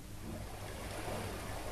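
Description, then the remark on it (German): A steady, continuous wash of gently splashing water plays at a moderate level, an even ambient nature sound with no voices and no distinct individual splashes standing out, played by an Alexa smart speaker from a nature-sounds sleep playlist in a bedroom. “Ah, schönes Wassergeplätscher.”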